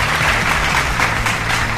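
Steady audience applause, a dense wash of many hands clapping at an even, loud level throughout, with no clear speech over it.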